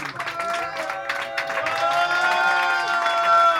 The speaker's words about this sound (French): Quelques applaudissements bien mérités.